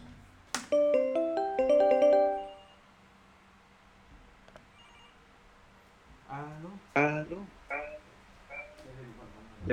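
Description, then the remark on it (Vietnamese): A call ringtone plays as a phone calls a Maika smart speaker in the bedroom: a bright, melodic chime of stacked tones for about two seconds, then fades into quiet room noise before a person starts talking. “Thì trong điện thoại của mình đang gọi cho ca phòng ngủ nè.”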